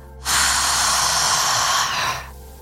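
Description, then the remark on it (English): One deep, airy breath fills the stillness during a guided breathing exercise: a long, steady inhale that eases into a slightly softer exhale, with no talking. “Keep breathing. Inhale and exhale whatever feels good to you.”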